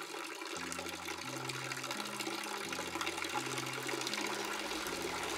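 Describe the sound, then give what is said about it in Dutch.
Fountain water splashes in a steady, continuous rush, heard at night from a small first-floor balcony in Belgium, with low droning tones shifting underneath and no voices. “Ik kijk naar de maan en hoor de fontein.”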